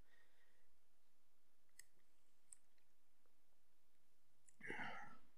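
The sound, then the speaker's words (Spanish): Someone drinking water into the mic: a few faint wet mouth clicks, then a short, louder sip or gulp near the end. No one speaks. “Perdón, está tomando agua.”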